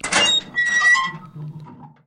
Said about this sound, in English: First, a personal favorite, and by favorite I mean it drives me mad how often I hear this sound the creaky metal door.